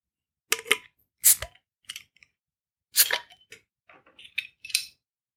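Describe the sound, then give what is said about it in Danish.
Ørbæk beer bottles being opened almost in sync: a series of sharp clicks, snaps and short hissy pops, two strongest near the start and middle, with smaller metallic ticks between, fairly loud, no talking. “Det var næsten synkron opknapning.”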